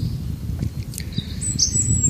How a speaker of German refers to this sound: Man steht hier unter Bäumen. Ich liege jetzt hier unter Bäumen. Ihr hört natürlich die Natur, die Vögel zwitschern.